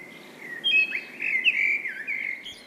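birds chirping

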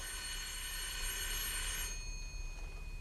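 doorbell ringing

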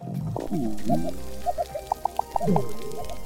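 underwater coral reef soundscape

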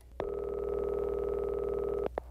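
telephone line tone

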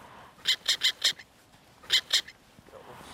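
black-headed gull calls

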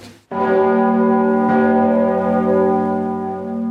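cathedral bell ringing

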